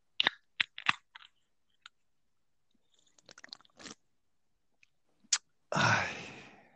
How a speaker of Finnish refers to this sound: Ja ottaa voiton, voiton oluen auki.